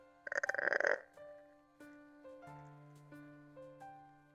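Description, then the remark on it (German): A voice imitates a church door opening with a loud, very penetrating creak: a harsh, rasping, pulsed groan lasting about a second, followed by quieter sustained tones that shift in pitch a few times. “Und die Tür, die ihr öffnet, öffnet sich mit einem lauten und sehr penetranten.”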